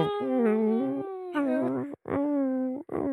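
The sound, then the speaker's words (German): A person imitates a dog whining, giving several drawn-out, wavering whimpers and howl-like cries, with brief breaths between them. “Wie, wie macht so ein Hund, wie er jault?”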